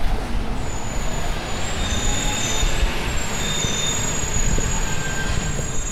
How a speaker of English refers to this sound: More bus sounds.